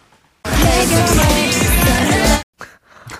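A loud two-second burst of dense, upbeat K-pop music with a thumping beat and layered vocals, played as a clip in a song-guessing quiz, cuts off abruptly, leaving faint murmuring sounds afterward.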